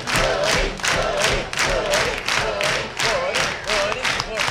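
A large audience applauds and cheers loudly and continuously for fiddler Woody Paul, the roar swelling in a steady rhythmic pulse about twice a second, like clapping or chanting in unison.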